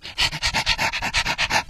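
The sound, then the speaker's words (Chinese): A thin, pointed-faced dog with a mane-like tuft on its head, mistaken for a lion, pants rapidly and steadily, about a dozen quick breathy huffs in under two seconds, each a bright airy burst in an even rhythm, fairly loud with no voices. “这是狗吧？”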